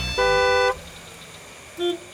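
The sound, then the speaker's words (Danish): A loud car horn blasts once for about half a second, followed by a shorter, fainter honk, with steady traffic rumble underneath. “De travle voksne flytter tættere og tættere på med deres hurtige biler, mobiltelefoner og stress og jag.”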